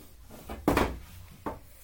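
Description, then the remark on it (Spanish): Wooden furniture being shifted as a chair is swapped for a stool: a loud, slightly drawn-out knock and scrape, then a shorter, softer bump about a second later, with no one speaking. “Ya no aguanto la silla, voy a cambiarme un banco.”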